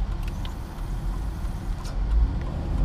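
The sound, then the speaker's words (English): Steady low rumble of road noise from inside a moving car, a constant engine and tire drone filling the cabin with faint higher ticks and rattles, no voices. “And um, so this is our car talk number two. We're just driving there right now.”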